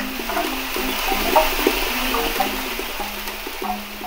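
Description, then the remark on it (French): A homemade instrument made from a walnut tree by wild luthier Benoît Gouillet plays a string of low, shifting notes over a steady rushing, breathy hiss that runs throughout at an even loudness; no one speaks. “De son côté, son arbre à noix produit ce qui suit.”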